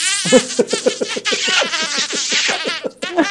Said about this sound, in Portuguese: Ai, parece uma abelha, gente. Um beijo de abelha.